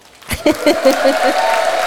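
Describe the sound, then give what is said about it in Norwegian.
A live audience at a recording erupts into cheering and clapping, with whoops and shouted voices rising quickly and sustaining a loud, dense roar of noise throughout. “Så kan ikke vi bare få lage litt lyd, så vi får med på opptaket at det, opptaket det fins mennesker her?”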